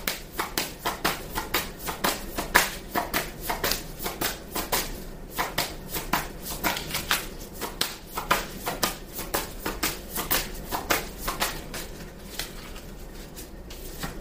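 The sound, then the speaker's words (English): Tarot cards are shuffled and drawn in a steady run of quick, crisp riffling snaps and soft slides, repeating rhythmically for several seconds with no talking. “All right, may I have another card, please?”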